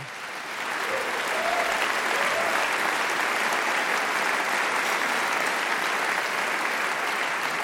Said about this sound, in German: Es ist mir eine große Freude, heute Abend hier zu stehen mit dieser sagenhaften Band, die …. Einen Applaus bitte.